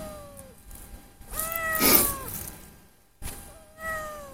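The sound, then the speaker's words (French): A female cat named Pearl meows repeatedly, with drawn-out, wavering calls that rise and fall in pitch, fairly loud, with a short pause before a final meow. No one speaks. “Mon chat travaille avec moi. Là, bah, c'est une bavarde.”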